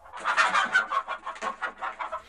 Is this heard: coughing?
no